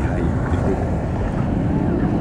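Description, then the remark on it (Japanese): A big ocean wave surges right at the microphone while someone floats and swims in the sea off Hawaii, a loud, steady rush of churning water with a deep low rumble and wind-like buffeting throughout. “あ、すごいの来た。はい、波でかい。”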